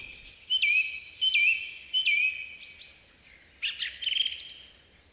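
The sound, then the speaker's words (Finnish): A song thrush sings clear, whistled phrases, repeating one short note pattern three times in a steady rhythm before switching to a different, more varied phrase. No talking. “Laulurastaan laulu on tiivistä toistelua.”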